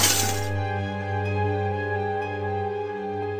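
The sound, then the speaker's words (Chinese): A sudden, bright crash of shattering glass bursts out on the second floor of an old mansion late at night, following a fight and falling furniture. It gives way to a steady, low ringing hum that lingers to the end. No one speaks. “这时，二楼突然传出猛烈的格斗声、笨重的家具倒下声、巨大物体的撞击声，最后是刺耳的玻璃碎裂声。”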